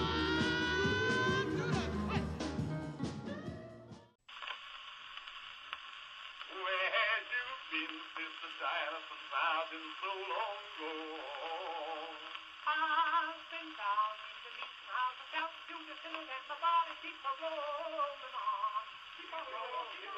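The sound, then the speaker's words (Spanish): A tinny, narrow-band early phonograph recording on the Little Wonder label of jubilee gospel singers harmonizing, their lyrics mentioning the words rock and roll, over steady surface hiss, following a few seconds of fuller, brighter music at the start. “que se llama … con el tema … que grabaron para el sello Little Wonder”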